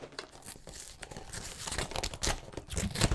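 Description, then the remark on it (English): Continuous crinkling and tearing of a plastic snack wrapper, apparently holding cookie biscuits, being ripped open, with sharp bursts of crackle throughout and no talking. “go ahead, crack that around. bitch open. I think from first look, it looks like they're like cookie biscuits.”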